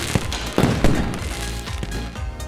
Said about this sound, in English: The most special time of year at Dadaochen Wharf is Lunar Valentine's Day, Jie every year on this weekend, there is a fireworks show